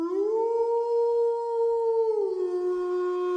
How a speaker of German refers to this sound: Ah. Wölfe. Ja!